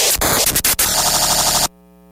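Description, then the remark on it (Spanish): A loud burst of harsh, crackling static with a few sharp pops, like a phone line breaking up, then an abrupt cutoff into a faint, steady electronic hum. “Se cortó la llamada.”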